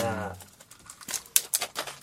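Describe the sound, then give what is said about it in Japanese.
A brief voice sounds at the start, then irregular crinkling and crackling bursts as someone fumbles with the plastic wrapper of a cola mochi candy block, trying to tear it open. “ブロック開けるの下手か、お前。”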